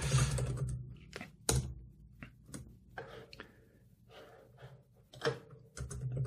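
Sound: computer keyboard typing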